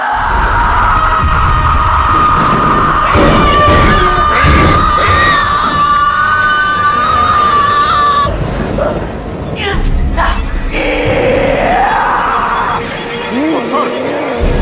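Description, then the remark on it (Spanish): A long, piercing scream rises over loud, irregular wooden bangs and thuds as horses, unsettled by the scream, strike their stable doors, with agitated shouting and commotion continuing after the scream fades. “El grito desgarrador de Emily hace que los caballos se inquieten y golpeen las puertas del establo.”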